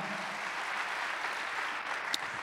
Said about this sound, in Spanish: Amén, amados hermanos, el tiempo se acabó, denle un aplauso a Cristo y póngase de pie, amado hermano.